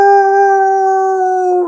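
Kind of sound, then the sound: animal, wolf howling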